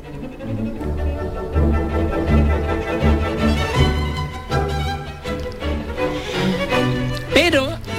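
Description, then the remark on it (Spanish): A full orchestra plays loud, energetic music with rich sustained strings, and near the end a solo violin line rises above it with wide vibrato: the finale of Tchaikovsky's Violin Concerto. “Pero también termina con gran energía y fuerza como este final de su concierto para violín, que suena así.”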